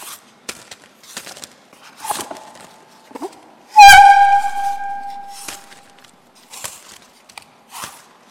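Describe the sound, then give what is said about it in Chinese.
A film foley imitation of a carpenter pulling a wood plane with shavings dropping: short, dry scraping strokes in an uneven rhythm, broken midway by one loud, sustained squealing tone that slowly fades. No one speaks. “我做的是这个抱子往出拉的过程，他呢这时候呢就把爆花的声音掉落下来了，啊，这样呢，在这个电影的制作过程中，它有很多需要夸张的东西。”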